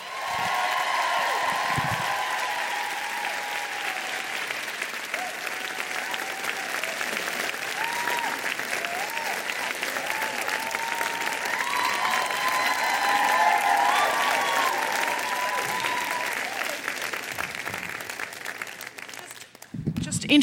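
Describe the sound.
Sustained audience applause welcoming two guests at an event, a dense steady patter of many hands clapping for about twenty seconds, with a few faint voices and cheers mixed in before it fades at the end.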